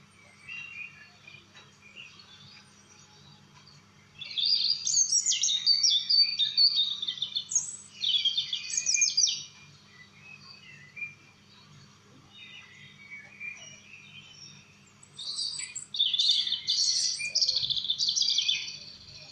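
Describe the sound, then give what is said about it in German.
A Eurasian wren sings two long, rapid bursts of high, trilling notes, loud, separated by a few seconds of quiet, with a low steady hum underneath. “Das ist der Zaunkönig.”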